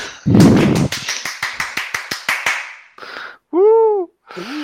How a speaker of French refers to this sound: On, attend le tonnerre d'applaudissements.